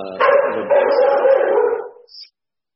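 A dog barks loudly in one drawn-out, howling burst lasting about two seconds, with a brief catch partway through, then everything falls silent. No one speaks.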